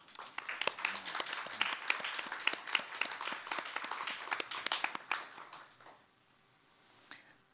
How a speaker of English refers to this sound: So it's my big pleasure to have them uh, here tonight, and I would like to, uh, you to join me in thanking them for being here with a big applause.